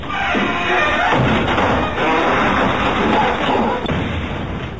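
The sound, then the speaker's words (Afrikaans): A loud, heavy crash of a section of a house roof caving in, the part between the kitchen and a bedroom, with dense rumbling debris and thuds that keep tumbling for several seconds, with no voices. “Skaars het Karel die emmer vol water getap of daar is 'n harde slag soos 'n stuk van die huis se dak in mekaar val.”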